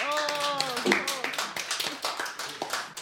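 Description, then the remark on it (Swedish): Audience applause, a dense patter of many hands clapping steadily for about three seconds, with a voice rising briefly over it at the start. “En applåd igen.”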